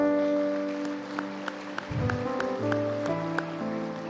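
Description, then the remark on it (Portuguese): An audience claps along to applaud God in a steady rhythm, sharp regular claps over sustained keyboard chords and a low bass line, with no voices. “Pela vida dos teus irmãos, aplaude a Deus, aplaude.”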